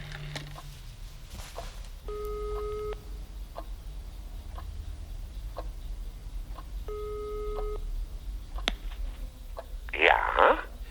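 A phone's ringing tone sounds twice through the earpiece as a man calls the head of a retirement home on his mobile phone from an office, each ring about a second long and roughly five seconds apart, over a low steady hum, followed by a brief rustle near the end.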